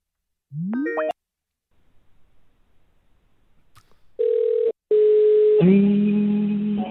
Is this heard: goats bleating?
no